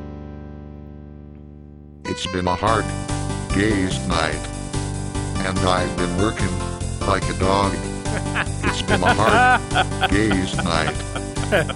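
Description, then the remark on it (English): After a brief low hum, a synthesized, machine-like voice from an electronic box, started by pushing a button, sings a pop melody, steady and fairly loud, with no accompanying instruments. “And then I thought, well, if I can do that, why don't I just, you know, have a box that will do the singing for me and I'll just push the button.”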